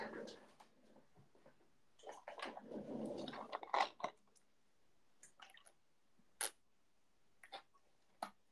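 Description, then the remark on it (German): Drinking water: a few seconds of wet gulping and swallowing, followed by sparse sharp clicks and small mouth noises spaced out. “Wasser trinken.”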